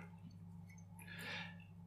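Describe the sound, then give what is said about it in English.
A soft, brief splash of chestnut-cask whiskey being poured into a glass, quiet over a steady low electrical hum, with no voices. “So I'll, I'll pour this one.”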